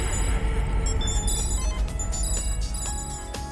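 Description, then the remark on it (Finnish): A telephone rings repeatedly in short electronic bursts, an incoming call to the Radio Nova studio, over a steady background of music or studio noise, clear, with no one speaking. “Ja radionova, kuka soittaa?”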